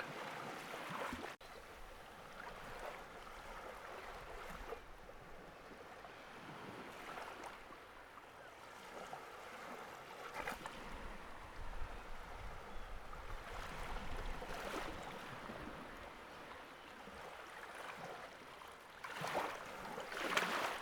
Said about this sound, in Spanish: Continúa dejándote llevar por el sonido relajante de las olas del mar.